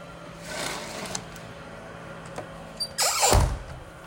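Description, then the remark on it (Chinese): Outdoor construction power tools and grass-mowing machinery run outside a home near Liujia high-speed rail in Taiwan, with something, apparently steel, being burned. A steady low motor drone is broken by a couple of harsh grinding bursts, the louder one near the end sweeping down in pitch. No one speaks. “老柯家的外面啊，工事种地，也不晓得在烧什么，看样子是钢铁。做什么东西吵死人了！天哪，还割草！”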